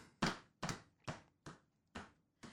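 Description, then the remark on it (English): An office chair tilts back too far and is locked in place, making six sharp, evenly spaced clunks in quick succession, each a short creaky knock, with no voices. “The chair went too far back, so I had to lock it so I didn't fly backwards.”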